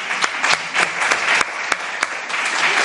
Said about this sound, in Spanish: Eh, no, ah, podemos aplaudir, ¿eh? Ah, podemos aplaudir